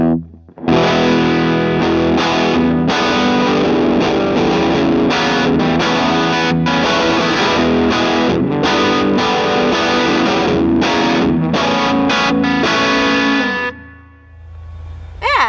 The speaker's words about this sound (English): so this this overdrive, um, here I'll play just for a second. It's got a lot of a lot of depth, a lot of bottom end